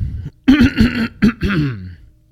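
human body sound, throat clearing and coughing

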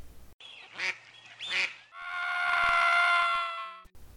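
bird, duck quacking

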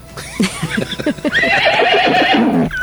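animal, horse neighing sound effect

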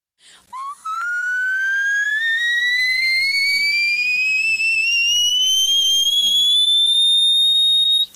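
whistle register singing

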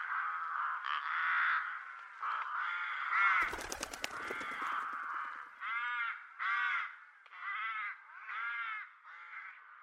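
bird, crows cawing

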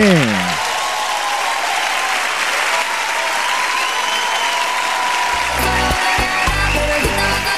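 crowd, applause

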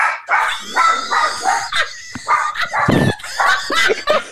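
animal, dogs barking

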